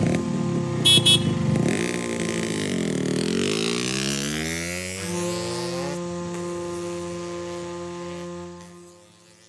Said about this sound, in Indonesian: ia meloncat ke boncengan motor yang telah dihidupkan oleh Sersan Ipi. Sersan Ipi membunyikan klakson dan menarik gas dan pergilah mereka membelah keheningan kampung.